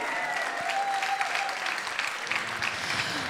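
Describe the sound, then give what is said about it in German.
Steady applause from a sizeable concert audience for a performing trio fills the space, a dense continuous patter of many hands clapping at once, with a faint tonal hum running underneath. “Sehr gut, könnt ihr zwischenapplaudieren.”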